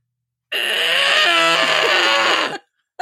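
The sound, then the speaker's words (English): A person vocally imitates a baby sea lion's cry: one loud, sustained, raspy bleating wail lasting about two seconds, delivered alone, with a faint trailing sound afterward. “if you guys have ever heard what a baby sea lion does. I'm going to push my microphone away, and this is my depiction of it.”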